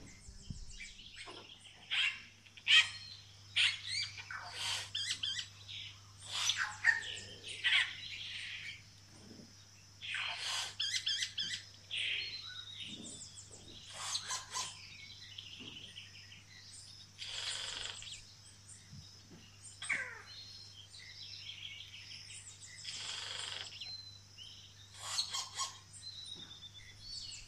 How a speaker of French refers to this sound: Les bruits que l'on entend dans cet enregistrement sonore sont ceux de la forêt amazonienne à 7 heures du matin. De nombreux oiseaux sont des espèces endémiques dont les cris ou les chants peuvent parfois ressembler à des bruits d'alarme, de machines